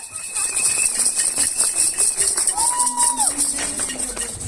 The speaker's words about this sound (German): Wie wir schon gesagt haben, wir waren am Dienstag, am 8. März, anlässlich des feministischen Kampftages auf der Demo am Bahnhofsvorplatz sind wir losgelaufen und wir zeigen euch jetzt mal ein paar Eindrücke, ein paar O-Töne von der Demonstration.